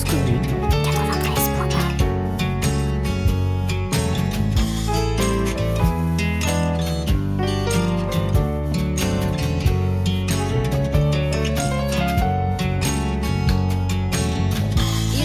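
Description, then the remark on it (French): Music plays continuously at a loud, steady level during a musical break on the radio station Cause Commune, a full arrangement with sustained tonal lines over a driving rhythmic beat, with no talking over it. “Alors, bah, nous allons justement faire une pause musicale.”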